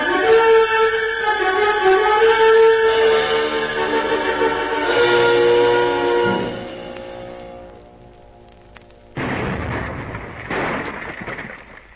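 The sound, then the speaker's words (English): Cannon shellfire from a gun on a submarine at an island rumbles as a low, thunder-like roar, swelling into a broad, noisy burst near the end after a stretch of sustained tonal sound. “It's definitely shell fire. I don't like the sound of it.”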